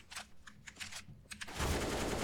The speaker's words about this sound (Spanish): Ahora están disparando. ¡Ah! ¡Agáchense!